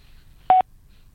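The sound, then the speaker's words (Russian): A single short electronic telephone tone on a call to a disconnected number, a clean steady beep lasting a fraction of a second, sounding alone over a faint, quiet background with no voices. “А, отключен сам номер.”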